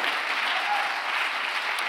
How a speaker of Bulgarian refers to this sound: О, ако отнемаш 10 секунди от тази проповед за ръкопляскане, ръкопляскай като че даваш слава на Бога наистина.